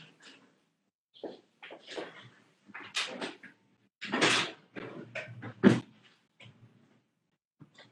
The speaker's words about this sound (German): Ich glaube, ich muss mal eine, eine, Schublade aufmachen. Ich bin in 10 Sekunden wieder da.